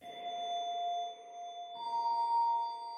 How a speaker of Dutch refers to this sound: Zo is er bij het woordje hints een bepaalde plink te horen, namelijk deze.